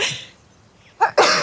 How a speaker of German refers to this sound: Achtung, ich muss niesen.